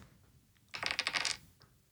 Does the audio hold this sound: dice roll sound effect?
yes